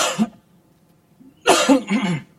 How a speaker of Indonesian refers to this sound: gua langsung batuk nih kayaknya